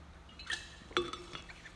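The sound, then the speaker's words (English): Soft sounds of a small water bottle being handled: two light clinks and a brief slosh of liquid, quiet and isolated with no talking. “So everything she touches now, like my little water bottle, which I want to drink before it gets unclean,”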